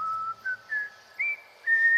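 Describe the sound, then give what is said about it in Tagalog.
A person whistles a short series of clear, steady notes, five or so brief tones rising slightly in pitch with small pauses between them, heard alone. “Pero nang sumipol ako, nagulat na lang ako nang biglang may marinig akong sumipol din.”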